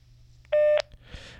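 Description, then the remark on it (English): A phone line drops with a single loud electronic tone lasting about a third of a second, steady in pitch, followed by faint line hiss and crackle. No one speaks. “Uh, basically, I don't know what that was. I got disconnected.”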